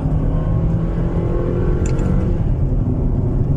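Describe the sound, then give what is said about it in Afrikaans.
A nearly new Suzuki Grand Vitara SUV, with 60 km on the odometer, pulls steadily under acceleration into third gear, a loud, continuous low drone with rising harmonic tones and no speech. “En dit voel die oomblik wat jy in derde ingaan, verloor hy bietjie stoom. Trek hy nie meer so hard nie.”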